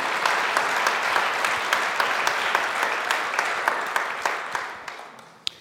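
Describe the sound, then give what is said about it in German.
Steady audience applause in response to a personal testimony, a dense wash of many hands clapping with a few sharper individual claps, fading gradually toward the end with a last lone clap. “Vielen Dank dir dürft auch gerne mit dem Applaus reagieren.”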